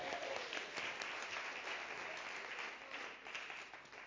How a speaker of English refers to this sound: Please give the Lord a, a round of applause while you sit down.